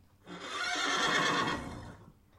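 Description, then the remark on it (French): A horse lets out a single drawn-out whinny, loud, rising and wavering for about two seconds before fading off, with no voices alongside it. “On peut aussi bien sûr voir de magnifiques chevaux et poneys pour les plus petits.”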